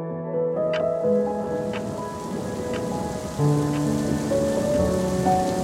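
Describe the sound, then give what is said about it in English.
Rain pours down in a steady, dense hiss, heard alongside sustained low musical tones and soft, evenly spaced taps, with no voices. “Just as he had suspected, it had poured.”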